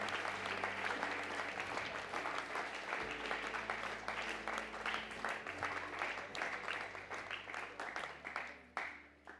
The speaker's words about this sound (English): Sorry, can we give a cheer for all of the people who put their hand up?